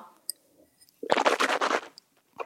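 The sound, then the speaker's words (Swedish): Someone gurgles a mouthful of coffee for about a second, a rough, bubbling rattle that starts abruptly after a few faint clicks and then stops, with no talking. “Nej men snälla, han gurglar.”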